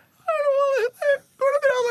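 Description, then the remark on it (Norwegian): A person squeals in an extremely high falsetto, speaking extra high so only dogs can hear it, three loud, wavering bursts with short gaps, the wordless squeaky tone resembling a whining dog. “Da må man jo snakke ekstra lyst, eh, sånn at bare hunder kan høre det.”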